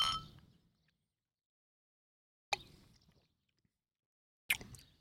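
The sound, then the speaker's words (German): Glasses clink together in a toast, then soft sipping and mouth sounds follow as Alpsider is drunk, coming as three short, bright bursts separated by quiet pauses, with no talking. “Das war extrem schier und jetzt schauen wir mal, ob das was wird. Prost.”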